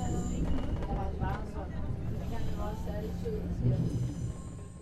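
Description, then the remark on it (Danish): Steady low rumble of a moving train heard from inside a carriage on the way home, a continuous droning roar with faint, indistinct voices murmuring in the background. “På vej hjem i toget tænker jeg på alt det, jeg har hørt.”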